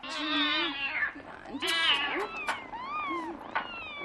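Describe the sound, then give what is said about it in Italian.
Several cats meow, their high, wavering cries overlapping and following one another in a steady chorus, with no one speaking. “Cari, cari Micini, che tenerezza. Oh, e dire che certe persone trattano male i gatti.”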